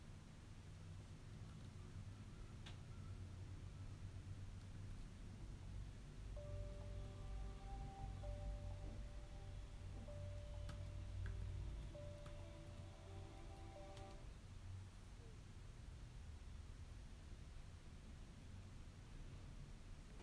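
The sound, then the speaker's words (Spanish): A fire crackles steadily with a constant soft hiss and low rumble, scattered with occasional sharp pops and snaps, with no talking. “Siente, siente como cómo se va, cómo se enciende, cómo se escucha el crujido del fuego.”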